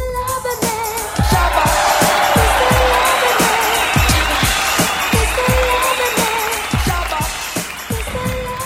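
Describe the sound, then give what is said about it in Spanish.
A large crowd applauds and cheers loudly for several seconds during a Cucú TV production broadcast on Radio Pasión US, a dense wash of clapping and shouts with steady low thumps pulsing underneath, like stomping or a drum beat. “Fuerte el aplauso, público conocedor.”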